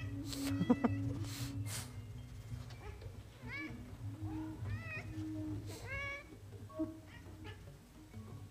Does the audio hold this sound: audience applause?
no